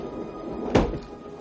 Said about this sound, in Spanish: Él evita que se cierre la puerta.